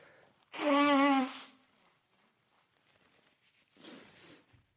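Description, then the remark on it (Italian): A loud, honking nose blow lasting about a second, with a buzzy tonal edge, followed after a pause by a softer, breathier second blow. No one speaks. “Intanto vi dico questa cosa, mi sto per soffiare il naso, quindi allacciate le cinture.”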